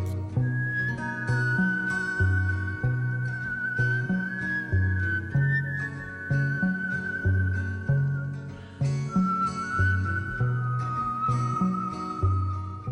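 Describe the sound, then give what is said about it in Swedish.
A clear, melodic whistle glides through long, sustained notes over a steady instrumental backing with a rhythmic bassline, staying loud and prominent throughout. No one speaks. “Ni tänker nu på visslande när man står på Gärdet och visslar på sina hundar, men det här var liksom, det här var next level visslande.”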